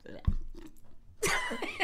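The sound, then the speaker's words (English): A voice imitates someone constantly popping and chewing gum with wet, smacking mouth noises: a sharp pop near the start, then a louder burst of squelchy, clicking chews toward the end, fairly loud. “I don't like when people like constantly pop their gum, like the like the chewing that goes.”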